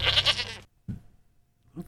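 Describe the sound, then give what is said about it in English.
A goat bleats loudly in one wavering, harmonic cry, followed by a couple of short, softer low grunts or snorts with brief quiet between them. “No, just give me the goats.”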